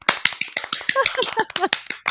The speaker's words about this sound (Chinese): 哎，快点快点，咱去给他鼓掌。